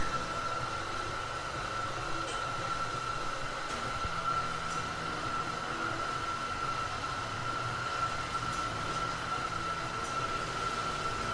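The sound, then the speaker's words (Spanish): A coffee grinder grinds coffee in a neighbourhood café, running steadily for about eleven seconds, a constant gritty whir topped by a thin, even motor whine, with no pauses and no voices. “Están moliendo mi café.”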